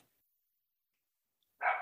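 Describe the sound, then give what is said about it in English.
A single sharp dog bark, loud, breaks in near the end after a stretch of near silence, in Los Angeles. No one speaks. “Yeah, and a dog too.”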